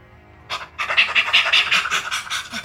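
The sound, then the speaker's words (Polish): A running dog's claws scratch and scrabble across sand in a quick, rhythmic series of gritty strokes, moderately loud, starting after a brief pause and continuing steadily to the end. “Jest ten chrobot po piasku, jest cisza i uderza cię w bark.”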